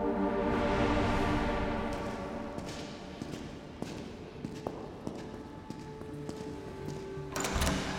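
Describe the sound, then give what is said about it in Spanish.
A door opens with a few soft knocks and thuds against a steady room hum as people pass an escort of undercover police and enter the room, then a brief rushing swell near the end as they come in. “Llegamos a la puerta y entramos a la habitación.”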